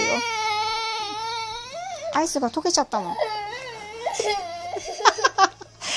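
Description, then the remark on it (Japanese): A young child cries loudly in long, wavering wails that break into choppy sobs because an ice cream has melted, while an adult speaks gently over the crying. “アイスが溶けちゃったって泣いてますね。うちの子がね。”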